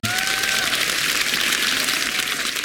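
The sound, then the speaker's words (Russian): An audience applauds steadily after being asked to clap if they went to summer camp as children, a dense wash of many hands clapping at an even loudness throughout, with a faint whistle-like tone and murmurs blended in. “А похлопайте те, кто в детстве был в лагере.”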